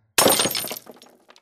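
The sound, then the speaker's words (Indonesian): The glass of a lamp at the front of a house shatters with a sharp, bright crash, followed by a brief scatter of small tinkling fragments that quickly fade. The sound is fairly loud, with no talking. “Mulai dari lampu depan rumah yang tiba-tiba pecah.”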